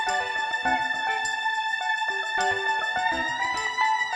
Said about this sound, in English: I would like to, to hear the guitar, a little a dunk a dunk ding ding.